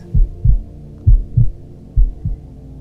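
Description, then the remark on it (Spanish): A steady heartbeat thumps in low, muffled pairs, lub-dub repeated three times with a soft hum beneath, fairly loud with no voices. “Siente los latidos y respiras.”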